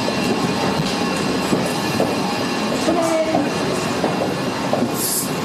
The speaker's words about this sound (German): Die Rolltreppe macht zu viel Krach, also nicht wundern.